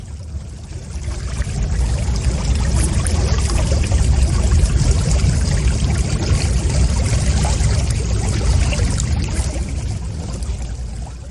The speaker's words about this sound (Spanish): O sea, prácticamente esto es lo que escuchas durante 60 minutos. El agua. O un, como un río.